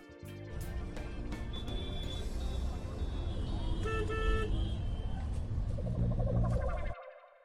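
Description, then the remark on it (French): Dense traffic in a Paris traffic jam, heard from a taxi on a freezing cold day, rumbles steadily, with engines idling and several car horns honking in short bursts, the whole din cutting off abruptly near the end. “Après 25 minutes dans les bouchons parisiens, j'arrive à destination.”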